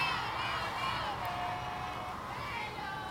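A large concert crowd roars continuously, many voices shouting and chanting together in a dense, steady wall of sound with no single voice standing out.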